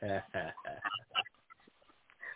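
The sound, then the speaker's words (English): A small dog lets out a couple of loud, whiny yaps, followed by softer scattered grumbles and yips that trail off before one last short bark-like cry. “Well, dog, get quiet now.”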